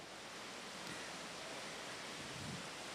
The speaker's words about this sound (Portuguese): Acho que está chovendo um pouco, né?